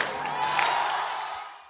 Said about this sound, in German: Eins, zwei, drei, Jubel! Ja, so sah es am Freitagabend in Österreich aus. Der erste Corona-Titel ist nämlich vergeben